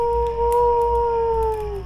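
A coyote lets out one long, steady howl that sustains for nearly two seconds, its pitch sagging slightly toward the end. The call is loud, with no talking over it.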